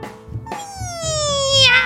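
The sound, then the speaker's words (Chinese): A single long, drawn-out cat meow that starts abruptly, then slides slowly downward in pitch with a bright, nasal tone, growing slightly louder toward the end, with no talking. “喵！只见猫咪睁开眼睛，犀利的眼光射向了哈维，但是哈维还没发现，接着猫咪就往哈维的方向跳了过去。”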